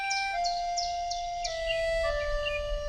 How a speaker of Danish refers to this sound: I december 2019 besøgte Celine Klint det borgercenteret, hvor der er fuglefløjt på gangene.